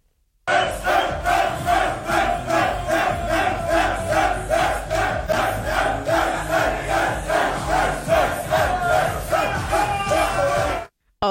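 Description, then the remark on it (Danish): A big crowd of football fans celebrating a victory chants loudly in unison, a steady rhythmic beat of voices repeating for about ten seconds before cutting off abruptly. “Okay, der er vist ingen tvivl om, at der er nogen, der fejrer en sejr her.”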